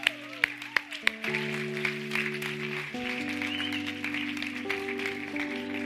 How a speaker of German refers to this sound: geben wir doch äh, den Church Talkers, ohne jetzt da alle äh, einzeln zu erwähnen, einen herzlichen Applaus, dass sie auf die Bühne kommen.